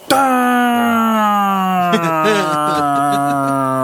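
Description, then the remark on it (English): A voice imitates the speaker's motorcycle motor failing while riding on the Shoreway at 60 to 70 miles an hour: a loud, steady droning hum slowly sags in pitch, then turns rough and sputtery for the last couple of seconds as it winds down. “well, we did really good getting to the first bar and it was like between the second and third bar when my motor made that.”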